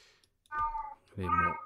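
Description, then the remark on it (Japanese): Two distinct cat meows in quick succession, clear, the second one longer and fuller, with a quiet pause between them. “えーと、紙の本もね出たぞって今言ってますね猫がね。”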